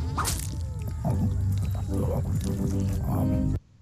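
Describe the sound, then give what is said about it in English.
A toad catches and eats a fly: a loud, wet croaking slurp with squishy gulping noises, running continuously for about three and a half seconds before stopping abruptly. “And he eats a fly.”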